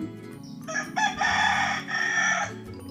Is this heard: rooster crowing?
yes